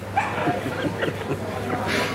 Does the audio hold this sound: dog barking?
yes